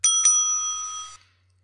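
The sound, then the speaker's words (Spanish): A bright bell sound effect rings twice in quick succession, then its metallic tone lingers and fades out after about a second. Loud and clear, with no talking. “Bueno, vamos a preguntar un timbre, es lo que gusta.”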